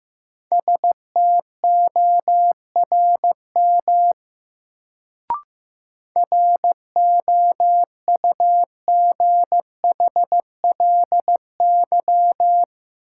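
A Morse code practice drill sending sentences built from the top 1500 words at about 15 words per minute: a single steady mid-pitched tone keyed into short and long beeps, interrupted by a pause and a brief click partway through, with no voices.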